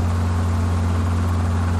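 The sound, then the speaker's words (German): A helicopter drones steadily overhead, a loud, continuous low engine hum with a rushing, noisy wash on top and no pauses or speech. “Und auf einmal hört man Helikoptergeräusche.”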